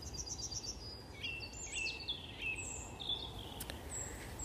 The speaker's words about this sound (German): aus einem kleinen Busch ähm, haben wir den, dann einen Teichrohrsänger gehört, der normal aus dem Schilf singt, aber durchaus am Zug auch einmal aus so einem ungewohnten Habitat zu hören ist.